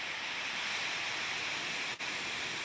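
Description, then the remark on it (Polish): A steady, dense roar of a moderate gale that sounds much like crashing sea surf, continuous and fairly loud throughout, with a momentary dip just before the end and no voices. “No tu już słychać. To trochę bardziej morskie fale bym powiedział.”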